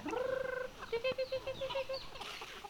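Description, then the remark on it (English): Roaming chickens cluck in a quick run of short, rhythmic calls, following a longer drawn-out squawk at the start, with faint farmyard background noise, at a home with a two-story wood house where horses and pigs also roam. “She lives here with her husband in a two story wood house, surrounded by roaming chickens, horses, and pigs.”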